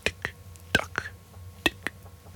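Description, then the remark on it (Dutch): A voice imitates a ticking clock with quick mouth clicks in tick-tock pairs, three pairs at a steady pace, fairly soft against quiet. “Ik moet er opeens aan denken dat bij mij thuis de klok zo'n”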